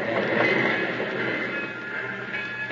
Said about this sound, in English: A train just came in. We'll get trampled in the rush.